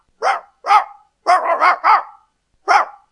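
A hunting dog barks loudly, two separate barks, then a quick run of three or four, then one more after a pause. No voices or other sounds.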